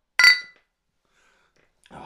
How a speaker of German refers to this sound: Prost, Neues! Und wie kann man besser ein neues Jahr anfangen, indem wir mit Polare anstoßen?